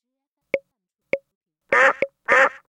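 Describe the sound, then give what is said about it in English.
Two raspy, nasal duck quacks sound clear, with three short hollow plopping pops spaced before and between them and silence around each sound. “D is for duck.”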